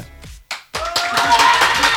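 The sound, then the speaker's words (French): An audience breaks into dense, steady applause after a brief pause, clapping as a vote on an applause meter for the more sober option, the clapping swelling and holding loud for over a second, with a few voices calling out within it. “Vu qu'on essaie à l'applaudimètre On peut essayer. Alors qui est pour que ce soit plus sobre Applaudissez.”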